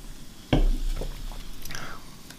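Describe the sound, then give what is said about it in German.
A sudden knock, like a bottle touching a glass, then a soft fizzing pour of lemon soda into a glass for a taste comparison, with a faint shifting tone as the glass fills, at a low level. “Du kannst ein bisschen reintun, dann kann ich vergleichen.”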